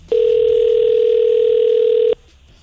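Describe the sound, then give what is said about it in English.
A steady, loud telephone dial tone sounds for about two seconds as a call is placed, a single unbroken hum that starts and stops abruptly, with faint background noise around it and no talking. “But we have gotten a right answer, so let's give him a call.”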